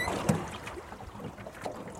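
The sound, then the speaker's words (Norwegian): A small wooden boat scrapes and thuds as a man shoves it out onto the water where the river through Tistedal runs into Femmesjøen. Soft sloshing and knocking of water against the hull follow, with no voices. “Her har han gjemt en båt som han skubber utpå vannet.”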